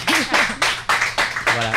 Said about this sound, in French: Merci beaucoup, euh, mesdames, d'être venues en parler. Je pense qu'on peut leur donner une bonne applaudissement à euh, public. Merci.